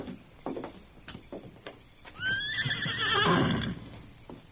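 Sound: horse neighing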